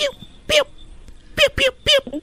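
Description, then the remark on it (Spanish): A person, asked to act like a puppy, imitates one with four short, high-pitched yapping barks, one on its own and then three in quicker succession, loud against a quiet background. “a ver, ¿puedes hacerle como un perrito”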